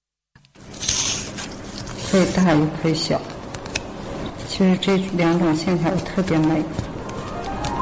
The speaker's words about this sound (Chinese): 你听，这是剪纸的声音，而此刻正在剪刀之下的不是一般的剪纸，它的名字很好听，叫做挂钱。